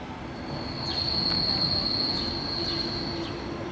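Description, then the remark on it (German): A sustained high-pitched metallic squeal of S-Bahn train wheels on the tracks above the historic Stadtbahn arches at Hackescher Markt in Berlin, steady and piercing over a low rumble of rolling railcars, with no voices. “Wir sind auf dem Weg zum Hackischen Markt, zu einem der Cafés in den historischen Stadtbahnbögen unter den S-Bahn-Gleisen.”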